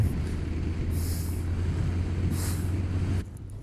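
A loud, steady engine roar as a vehicle accelerates to overtake a truck on a country road, with two brief hissing whooshes before the noise drops off suddenly near the end.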